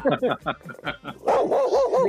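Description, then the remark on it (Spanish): A dog lets out a quick run of short, sharp barks, then shifts into a longer, wavering whine-like yelp that rises and falls. “Por ahí ya lo soltó el perro.”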